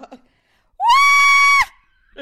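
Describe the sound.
A woman lets out a loud, piercing scream, imitating how she shrieked with excitement when she received a marriage proposal on Christmas Eve. It rises sharply and holds a steady high pitch for nearly a second, with soft breathy sounds before and after.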